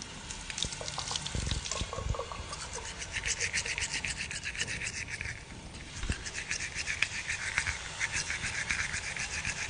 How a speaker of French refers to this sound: Comme j'ai fini de manger, je vais me brosser les dents. Tiens, moi aussi.